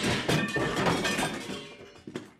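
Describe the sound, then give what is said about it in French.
A loud, clattering crash of Norbert losing his balance and falling on his head, with several heavy thuds and rattling impacts in quick succession, fading out with one last knock near the end. “Bam Boum dans la précipitation, Norbert avait perdu l'équilibre et était tombé sur la tête.”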